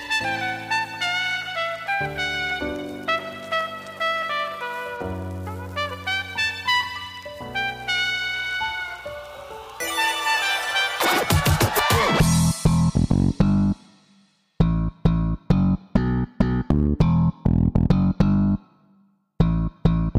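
An electronic dance track plays loud and full, with layered synth chords giving way around the midpoint to a dense build, then punchy rhythmic stabs with sharp gaps between hits.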